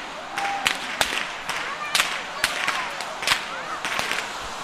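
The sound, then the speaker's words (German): Sharp whip cracks snap out again and again, roughly eight in irregular succession, loud, over a steady outdoor bustle of crowd noise in an open square in Villingen during carnival; mostly children and teenagers are cracking whips in the dark. “Da steht auch der Fastnachtsbaum in der Mitte und hier sind gerade hauptsächlich Kinder und Jugendliche, die im Dunkeln mit Peitschen knallen und im Hintergrund klingen diese Glocken wahnsinnig laut.”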